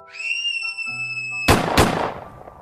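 Two loud gunshots ring out in quick succession, each a sharp blast with a short rumbling tail, following a sustained, eerie tonal drone that cuts off at the first shot.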